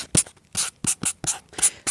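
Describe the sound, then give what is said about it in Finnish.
A marker pen scratches across paper in quick, rhythmic strokes as Joe Biden signs executive orders at a desk piled with folders, about five or six short swishing bursts in under two seconds, fairly crisp with no talking. “kun katsotaan ja kuunnellaan näitä tota, kynän suhinoita ja on näitä papereet pöydällä”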